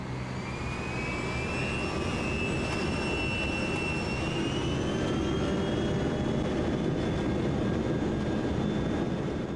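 Piston aircraft engines drone steadily and loudly for the whole stretch, a dense rumbling roar with thin whining tones gliding slightly in pitch above it. No one speaks.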